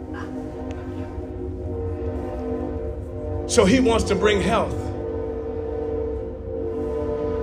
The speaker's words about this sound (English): Wait for the train to pass.